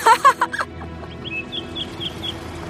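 An ostrich in an engine shed gives a few quick, loud clucking calls at the start, then softer, high chirping notes spaced evenly over a low background hum.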